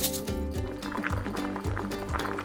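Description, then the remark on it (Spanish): Water pours steadily into a cooking pot over sautéed chicken until it covers the chicken, a continuous splashing and gurgling that rises in pitch as it fills, with a faint voice murmuring in the background. “Ahí le añadimos el agua hasta que cubra el pollo.”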